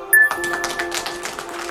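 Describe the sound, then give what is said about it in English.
A lyrebird, a brown ground-dwelling bird of Australia, mimics human-made machine noises: a sharp electronic beep followed by a rapid run of clattering, ringing clicks like a cash register, fairly loud with no talking. “They have the amazing ability to copy another bird's song, the sounds of the forest, and even noises from human life around them.”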